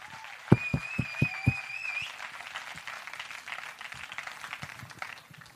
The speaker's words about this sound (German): Du bist mehr als 500 Kilometer angereist heute. Hammer, wie ist denn dein Name? Einmal einen Applaus für